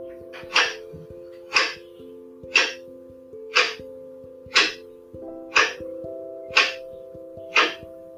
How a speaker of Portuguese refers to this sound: Ouvindo o som de um relógio, vamos imaginar que somos o seu pêndulo